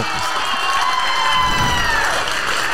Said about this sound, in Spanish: un aplauso para una mujer valiente, una mujer hermosa, una mujer que ha decidido darle sentido a una vivencia dolorosísima para ayudar a la gente.